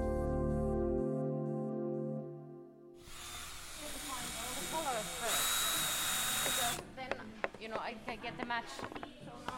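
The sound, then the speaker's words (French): Power tools at work as about ten European volunteers screw, cut and assemble wooden planks in premises in an industrial zone north of Le Mans, France: a steady whining drone gives way to a loud, hissing electric-saw roar, followed by sharp clattering knocks and taps. “On visse, on coupe, on assemble dans un local d'une zone industrielle au nord du Mans.”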